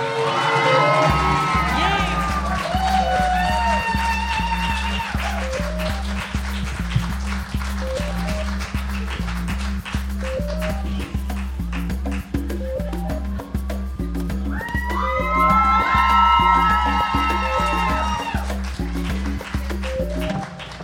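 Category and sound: crowd, audience applauding and cheering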